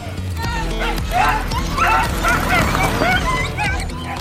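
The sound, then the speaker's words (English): Several huskies bark and yip excitedly over one another in a dense, continuous chorus, with high rising whines mixed in, loud throughout, as dog teams train and race pulling scooters and bikes in a state forest. “Yep, on certain weekends in the Passchendaele State Forest, you'll find huskies and their people training and racing as teams of dogs drive scooters and bikes.”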